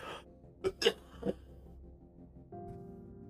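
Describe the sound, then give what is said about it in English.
Three short, dry coughs: two quick bursts close together, then a third a moment later, each sharp and abrupt against a quiet background. No one speaks. “Don't know why I'm coughing now.”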